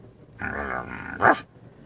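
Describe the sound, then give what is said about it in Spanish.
A voice actor imitates a dog's growl, doing the reactions of the dog Dólar in Ricky Ricón: a rough, rumbling snarl lasting about a second that swells into a sharper, louder yelp-like burst before cutting off. “Y luego hacía también las reacciones del perro dólar, el que decía, ya me cayó, me cayó mal.”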